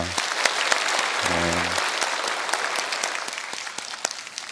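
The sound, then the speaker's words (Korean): An audience at a worship service applauds as an offering of glory to God, a dense, steady wash of clapping that lasts several seconds and slowly thins toward the end, with a low held tone sounding briefly underneath. “우리의 귀한 찬양과 또 헌신과 예배를 통하여서 우리 영광 받으신 하나님 앞에 영광의 박수 올려드립니다.”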